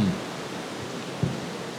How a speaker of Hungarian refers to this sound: Na most mennek el, amikor így zuhol. Halló, hát nézd, mennek el. Hát meg fognak ázni. Maradjanak itt, hát mint a dézsából önteni.